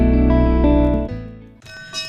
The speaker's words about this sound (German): Das Läuten, das kommt von einer kleinen Kapelle, St. Maria Magdalena. Die steht außerhalb von Rieden am Forgensee, auf einem kleinen Hügel.